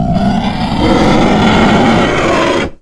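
A loud, sustained chorus of monstrous howls and roars from two hulking, twisted Shadow Spawn creatures charging forward, harsh and growling, lasting nearly three seconds before cutting off abruptly.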